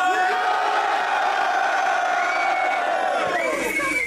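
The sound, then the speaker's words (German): A live crowd cheers and shouts loudly and continuously for a rapper, from Hildesheim, a dense wash of voices with whoops and yells rising above it, sustained at full volume throughout. “Macht Lärm für …!”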